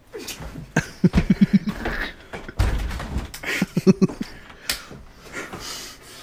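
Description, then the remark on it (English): A door thumps and rattles in quick bursts of knocks, a cluster early and another a few seconds later, with a heavier thud between, sounding strained as if under weight. “Dude, I'm breaking your door.”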